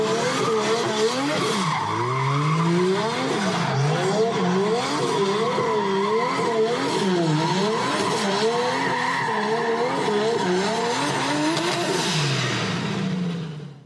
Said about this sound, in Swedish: En Mercedes M104 precis.